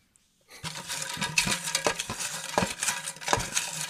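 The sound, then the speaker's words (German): A hand rummages through loose paper slips inside a suitcase, producing a steady rustling with irregular soft knocks and shuffles, no voices present. “Wir greifen jetzt noch mal in unseren sehr nachhaltigen Koffer.”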